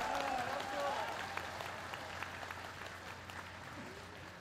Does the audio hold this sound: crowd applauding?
yes